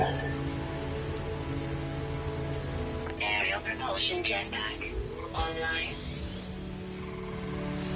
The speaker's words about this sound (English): It's raining in the desert.